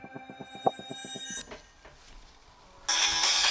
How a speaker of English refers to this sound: Oh, that's my phone.